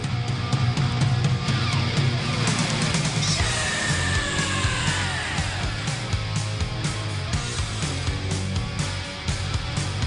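A rock song plays from a vinyl record, loud and dense, with driving drums and bass under distorted guitars and a strained, shouting vocal sustained throughout.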